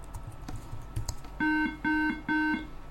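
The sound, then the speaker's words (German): Quick keyboard taps clatter for about a second as a password is typed correctly at a computer's startup login, then three evenly spaced electronic beeps sound, each a steady tone lasting roughly a quarter second, clear; the computer then starts up. “Drei Pieptöne.”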